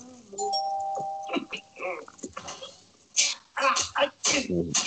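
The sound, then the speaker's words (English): A musical doorbell rings a short, clear two-note chime near the start, then fades as voices and noisy bursts take over for the rest. “I'm trying to find a musical doorbell you came to the right place.”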